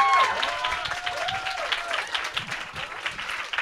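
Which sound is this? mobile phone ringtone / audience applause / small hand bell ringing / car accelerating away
audience applause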